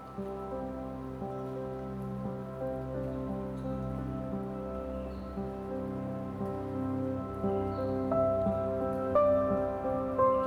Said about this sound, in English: go completely and fall deeply into the comforting arms of the falling rain.